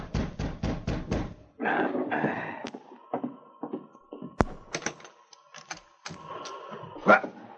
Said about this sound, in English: That night, Gideon Perry was seated in his cabin when he heard a knock at the door.